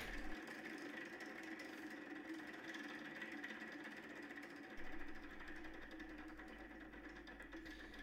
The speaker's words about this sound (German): würde ich jetzt einfach mal kurz am Glücksrad drehen, oder? Ja, mach das. Um zu hören, wen wir, wen wir jetzt hier einmal anmoderieren dürfen.